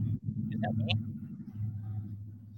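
A monster truck rumbles by outside, its deep engine drone steady and fairly loud throughout, with a few brief higher-pitched chirps over it.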